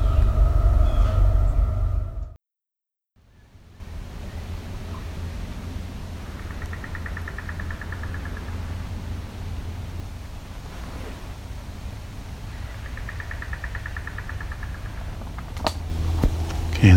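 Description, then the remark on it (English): A train rumbles past, a loud, steady low roar that fills the whole stretch after a brief silent gap, with faint high tones rising over the noise now and then. “I think these might be young towhee, but we also got a train coming, so it's gonna be loud.”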